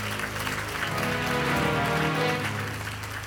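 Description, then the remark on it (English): A church audience claps for the protocol staff in a dense, sustained burst of applause lasting a few seconds. It is steady and fairly loud, with a low musical hum running underneath. “You clap your hands for them.”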